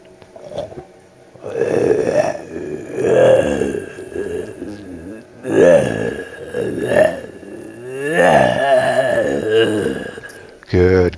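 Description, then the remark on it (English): A voice performs a run of raspy, guttural zombie effort sounds, groans and grunts, strained and burp-like, in several loud bursts over about eleven seconds with short pauses between them. “All right, so give me those effort sounds again.”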